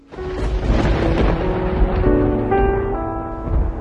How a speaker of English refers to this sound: There's a storm gathering.